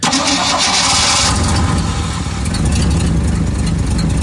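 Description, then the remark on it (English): A car engine cranks in very cold weather with a harsh, grinding whir, then seems to catch into a low, steady rumble that continues loudly for several seconds. “Usually Idle's pretty good too, but it's very cold.”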